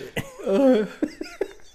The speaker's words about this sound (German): da, eine niest.